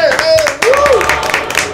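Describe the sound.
A small group claps steadily in applause for a departing colleague, with voices calling out and cheering over the applause throughout.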